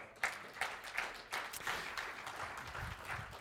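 A crowd of people applauds together, a steady, dense patter of many hands clapping at once that holds at an even level for a few seconds with no talking over it.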